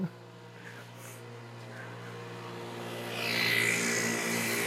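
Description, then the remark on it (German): A small motor scooter, ridden by a man who rode it 15 km, hums steadily, then grows louder and rougher as it revs and drives past, with a rushing, whiny drone filling the last second or so. “Digga, Junge, der fährt 15 km mit seinem Roller.”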